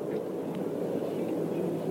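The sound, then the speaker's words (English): The Rolls-Royce engine of an unlimited hydroplane racing boat fires up before the start of Heat 2B and roars steadily, a dense, low rumble that holds an even loudness throughout with no breaks. “The always reliable Rolls Royce of the pack kicks up right away, and out she comes.”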